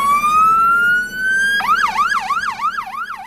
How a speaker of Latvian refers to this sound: Volvo FMX6 X6 ir specializētā meža ugunsdzēsības autocisterne, kas šonadēļ svinīgi iedegtiem bākaguņiem un skanot sirēnām iebrauca meža ugunsdzēsības stacijā Križos un tika nodota Dienvidlatgales virsmežniecības rīcībā.